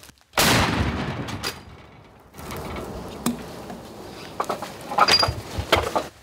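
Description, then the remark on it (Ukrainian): A single heavy artillery gun of the Da Vinci Wolves battalion fires on the eastern front: a sharp booming blast followed by a long rolling rumble, then a second wave of reverberating noise and faint clatter. “Тут арта не умовкає, ні наша, ні ворожа.”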